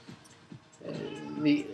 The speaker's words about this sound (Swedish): Eh, hej katten.